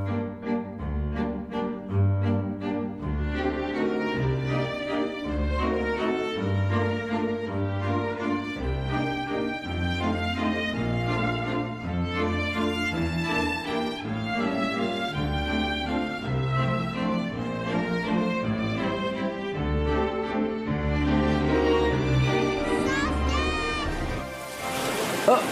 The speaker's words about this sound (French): nous offre là une belle valse aérienne.